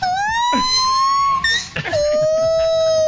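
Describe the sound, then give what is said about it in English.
A gibbon call rings out loud: a long, pure wailing note that slowly rises in pitch, breaks off briefly with some rougher sounds, then resumes as another sustained high tone. “I believe it's a monkey, right? Like a monkey like animal, a uh, gibbon.”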